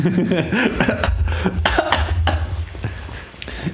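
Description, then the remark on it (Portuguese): A few sharp coughs break out in quick bursts, mixed with soft chuckling and throaty voiced sounds, fairly loud. “isto, esta tosse agora.”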